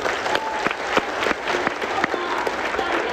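Sustained applause from a crowd at a learning event, given for their teacher, a dense steady patter of many hands clapping at once with no pauses, fairly loud and even throughout.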